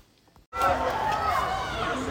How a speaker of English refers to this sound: So here we are uh, in very rainy Istanbul. It's been torrential rain for most of match day now. And the screams you can hear behind me are youthful Galatasaray fans. That's because we're at the under 19s game between United and Galatasaray